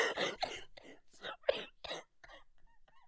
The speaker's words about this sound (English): Mate, you're worse than me when I had my cough.